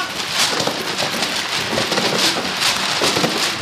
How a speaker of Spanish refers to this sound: Vamos con toda la lluvia.